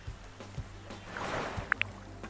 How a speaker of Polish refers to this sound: Posłuchajmy. Zaznaczone, ocean Waves. Tak. Fale oceanu nas usypiają, ale to nie wszystko.